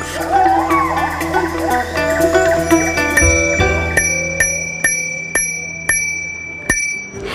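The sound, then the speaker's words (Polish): Bicycle bells ring in a busy, overlapping jumble, then a single bell dings repeatedly at a steady, quick rhythm, each bright metallic ring sharp before fading. “I tak oto odzywamy się do Państwa także dźwiękowo i polecamy właśnie trasę rowerową.”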